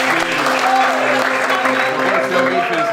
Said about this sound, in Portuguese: Palmas de novo.